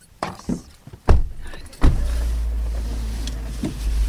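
getting into a car

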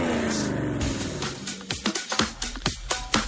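car engine roaring

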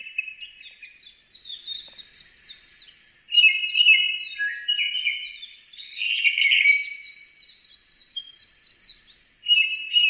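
japanese thrush song

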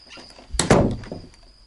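door opening

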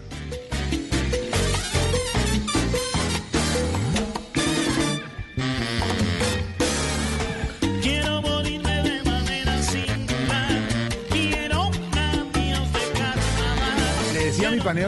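song played on air

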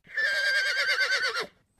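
horse neighing

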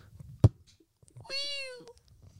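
cat meow sound effect

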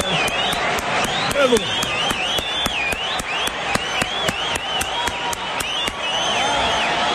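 audience applauding

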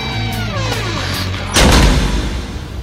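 door slamming shut

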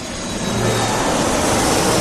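airplane taking off

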